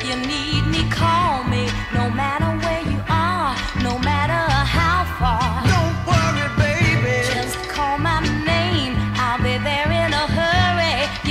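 A soul duet plays continuously with full band backing: steady bass and drums, bright horns or strings, and a lead vocal melody weaving over the top at a loud, even level.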